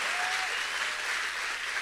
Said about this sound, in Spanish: Ah, yo creo que tú le puedes dar un mejor aplauso a Jesús este domingo.